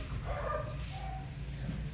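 Dogs bark, a couple of yelping barks in the first second, set against a steady low rumbling hum with no one talking.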